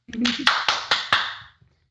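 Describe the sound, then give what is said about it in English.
Four or five sharp hand claps in a steady, even rhythm, each with a bright snap and a short ringing tail, starting just after a brief burst of voice. “I think I was short two claps there.”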